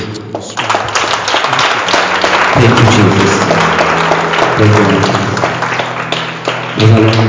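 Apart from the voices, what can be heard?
audience clapping hands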